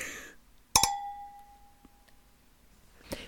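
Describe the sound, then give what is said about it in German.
Two glasses clink together once in a toast, with a bright ringing tone that fades slowly over about a second, followed by a soft knock a moment later. No one speaks. “Warte, das holen wir jetzt nach. Ja, also dann Prost.”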